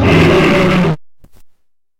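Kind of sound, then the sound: animal, lion roaring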